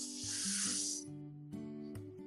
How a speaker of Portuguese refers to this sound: Vou pedir para que vocês façam uma respiração profunda, enchendo o diafragma. Então, inspira profundo e solta com ar de relaxamento.